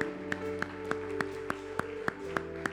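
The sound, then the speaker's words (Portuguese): A church audience claps together in praise to the Lord in a steady, even beat, roughly three claps per second, over sustained keyboard chords, with no voices standing out. “se você viu alguém fazer essa oração, igreja, dê um abraço nessa pessoa enquanto a gente aplaude ao Senhor.”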